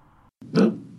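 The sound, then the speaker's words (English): A chihuahua lets out one short, harsh cough, a rough honking burst that is loud, following a brief low rumble and a moment of silence; the dog has had this cough for two weeks. “my chihuahua here has been doing this cough thing for fucking two weeks”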